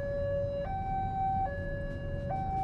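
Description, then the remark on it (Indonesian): A railway level crossing alarm blares a loud, steady two-tone warning, alternating between a lower and higher pitch about every second, over a low rumble of road traffic, heard while stopped at the crossing. “gue lagi berhenti di palang kereta berisik banget ya sih suaranya berisik ya ah ya udahlah mau gimana lagi namanya juga berhenti di palang kereta”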